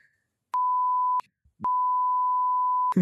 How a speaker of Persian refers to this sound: نمیخوام اینجوری بگم نمیدونم بوق بذار اینجا رو واقعا شرمم میاد بگم